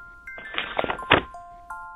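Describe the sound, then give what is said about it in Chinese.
A ding-dong school bell chime plays the end-of-class music in sustained electronic tones that step between a few pitches, with a burst of rustling, clattering noise through the middle. “叮咚，叮咚，下课音乐响起来，这声音听起来真美妙啊！”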